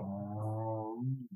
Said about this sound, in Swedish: det var min hund där